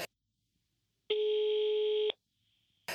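A single steady telephone ring tone, from a call placed to a guest in Kuwait, sounds for about a second against near silence, bracketed by brief clicks of line noise at the start and end.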